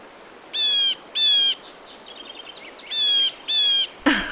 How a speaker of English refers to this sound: Okay, we're off to a great start because that one is one of my favorites the blue jay.